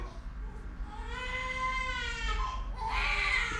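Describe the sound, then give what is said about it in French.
A baby girl cries, a long wavering wail that rises and falls, then breaks into a sharper, louder burst of crying over a low background hum. “il y a ma fille qui pleure”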